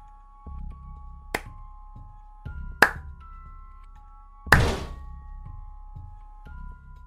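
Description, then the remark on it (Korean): Two sharp hand claps ring out a second or so apart, then a much louder, heavier bang of an art room door being struck hard by something, with a short rumbling decay over a steady low hum. “마지막 박수를 친 순간 미술실 문이 뭔가에 강하게 부딪히는 소리가 났다.”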